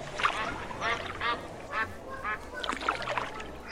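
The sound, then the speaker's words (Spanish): Ducks quack repeatedly in short, raspy bursts, several calls spaced across a few seconds, over a low outdoor murmur of water and background noise. “Los bosques de Palermo un parque donde uno podía pasear en bote por el lago junto a los patos.”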